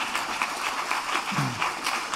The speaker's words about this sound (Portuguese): Mas nós não deixamos de fazer algo que é muito importante também para receber os nossos visitantes. Como igreja, com uma salva de palmas.